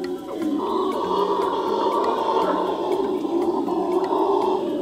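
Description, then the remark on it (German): A family of howler monkeys at a small coastal village roars in a steady, droning chorus, a deep rumbling wall of sound that stays loud and continuous throughout, with faint ticking in the background and no voices. “Eine Familie von Brüllaffen kündigt den Besuch des fremden Bunatschis an.”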